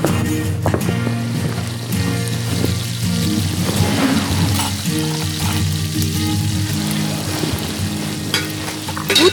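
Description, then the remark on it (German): Bacon sizzles steadily in a frying pan, a continuous crackle and hiss with a low humming drone underneath, lasting the whole stretch with no one speaking. “pulte Fernando das letzte Stück Speck aus der Bratpfanne”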